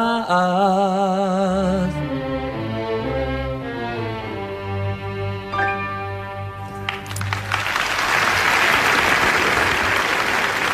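Music from the Israeli Chamber Orchestra Ramat Gan at a concert swells to a held final chord, then a large audience bursts into loud, sustained applause that fills the last few seconds.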